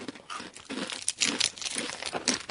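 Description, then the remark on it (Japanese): A small plastic wrapper of an individually wrapped snack is crinkled and torn open, a continuous run of crisp rustling and crackling bursts over a couple of seconds, with no voices. “はい、一つずつ、こう、個包装になって個包装になっております。”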